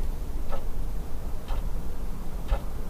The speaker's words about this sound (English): At night, I'd be lying in bed listening to the clock tick past midnight.